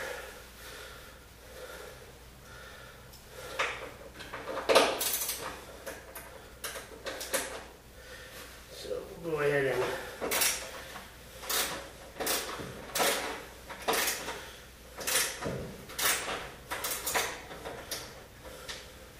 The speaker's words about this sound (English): You know what? I think I am going to take the door off of this panel. It's just a little too bulky, and I don't want to risk breaking the glass on this door.